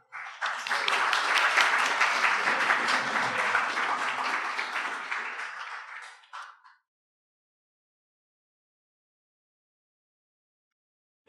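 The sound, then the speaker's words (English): A crowd applauds steadily for about six seconds for three children after a card-tower activity, a dense wash of many hands clapping that fades out, followed by silence and a brief sound at the very end. “Let's give them a little clap.”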